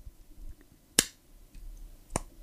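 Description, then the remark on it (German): Two sharp, crisp plastic clicks of Lego-type toy bricks snapping together, about a second apart, fairly loud against a faint, quiet background. “das Knacken.”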